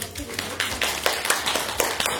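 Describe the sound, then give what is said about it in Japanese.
Brief applause from a small group: quick, uneven claps blending into a steady patter for a couple of seconds, with faint voices in the background. “じゃあ、えー、皆さん拍手お願いします”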